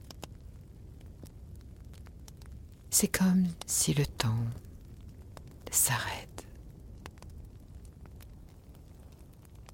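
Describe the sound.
A wood fire crackles softly and steadily, with scattered sharp pops throughout, while a hushed, whispering voice speaks briefly in the middle.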